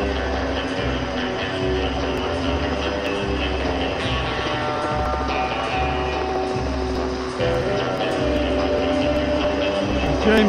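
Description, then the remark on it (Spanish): A helicopter flies in the 2012 London Olympics opening ceremony film, taking the Queen from Buckingham Palace to the stadium, its rotor blades beating out a steady, rhythmic thump over a loud, continuous engine roar that holds throughout. “La causa, un video en el que James Bond, encarnado por Daniel Craig, la recogía en el Palacio de Buckingham para llevarla en helicóptero al estadio.”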